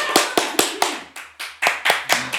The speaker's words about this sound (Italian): Applaudite, dai!